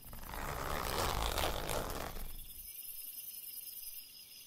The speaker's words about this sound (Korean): 그걸 확인한 나는 가방 지퍼에 손을 대고 살짝 열어보았다.